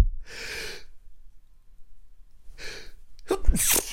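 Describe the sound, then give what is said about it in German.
Four loud sneezes in a row, each a sharp breathy burst separated by short pauses, with the final one the most explosive. No talking accompanies them. “Anscheinend muss ich jetzt viermal niesen.”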